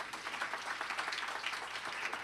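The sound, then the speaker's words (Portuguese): A church audience applauding together at the end of a prayer service, a dense, steady patter of many hands clapping that holds evenly throughout, with no voices over it. “Vamos aplaudir o Senhor, queridos.”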